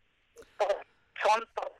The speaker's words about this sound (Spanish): a ver, ¿sabes qué? Mueve, mueve un poquito, mueve, mueve un poquito tu celular, muévete un poquito de lugar porque se está yendo la, la señal, amiga.